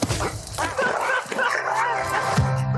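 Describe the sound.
A dog barks and yips repeatedly, sharp excited bursts running together over a busy background with faint voices mixed in.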